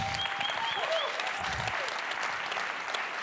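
A church audience claps steadily, a dense, even wash of many hands with no speech over it, holding at a fairly strong level throughout the few seconds.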